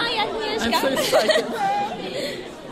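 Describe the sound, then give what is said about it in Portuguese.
A crowd of voices talks loudly over one another at the entrance of a secondary school, a dense, continuous babble of names and greetings in Portuguese, Polish and English, with scattered bits of nervous laughter rising from the mix and no single speaker standing out. “As conversas vão se cruzando bem alto, misturam-se os nomes, os risos nervosos, os olás em português, polaco e inglês.”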